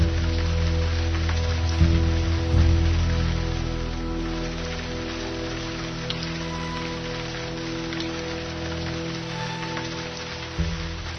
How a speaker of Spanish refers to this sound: Seguirá lloviendo. En el radio dicen que seguirá lloviendo.